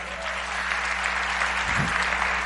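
A crowd claps steadily, a dense wash of many hands applauding together at a consistent, fairly loud level throughout, with a low hum beneath.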